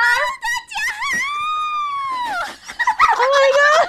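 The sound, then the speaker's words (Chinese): A guest introducing themselves lets out loud, very high-pitched whistle-register ("dolphin voice") shrieks: a few quick piercing yelps, then a long sustained wavering squeal that bends downward, followed by more shrill, uneven cries. “我刚才那个是海豚音吗？”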